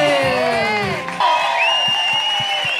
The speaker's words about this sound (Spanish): Un aplausito para el gusano, papi.